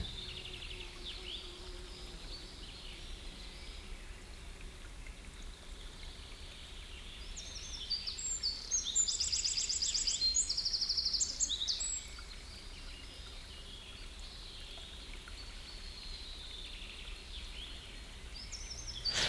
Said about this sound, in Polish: Leżąc tak, wsłuchaj się w szum wody, w śpiew ptaków, które od wieków zamieszkują podnóże tej góry.